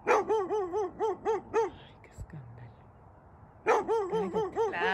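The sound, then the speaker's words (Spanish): A neighbor's dog barks in quick, rhythmic volleys, around half a dozen sharp, tonal yaps, then a brief lull before another burst of barking starts up, fairly loud. “Ya, los asustas, Cállate, perro del vecino, ¿dónde estás?”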